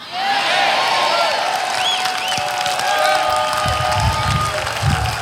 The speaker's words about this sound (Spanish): Dame un aplauso más grande, por favor.